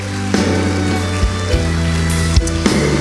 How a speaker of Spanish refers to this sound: ¿Qué tal si honramos al Señor con un aplauso fuerte?